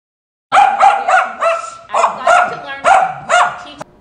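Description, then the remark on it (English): A dog barks loudly, a rapid series of about eight sharp, yappy barks in quick succession with brief gaps between bursts, and no one talking. “Now the dog's not gonna do this.”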